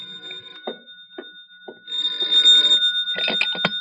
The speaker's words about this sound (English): I was in my hotel room, a little annoyed at my imagination, when at 10:30 my phone rang.